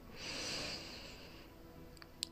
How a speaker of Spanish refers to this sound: haciendo un poco de silencio y respiración. Inhalo,